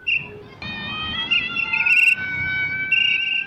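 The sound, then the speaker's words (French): A shrill mouth whistle, blown by a man in a fluorescent vest holding a red flag as he helps schoolchildren cross a paved road near a public primary school, sounds in long, sustained blasts, fairly loud, with a brief pause before it swells again over a low rumble of outdoor background noise. “Sifflé à la bouche, drapeau rouge en main, un homme en chasuble fluorescent aide des écoliers à traverser la voie pavée près de l'école primaire publique Missité.”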